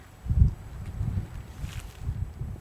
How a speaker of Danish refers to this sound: Hvad mindre de selvfølgelig har siddet udenfor og gør det. Øh, fordi der er faktisk rigtig skønt, hvis ikke der var blæst.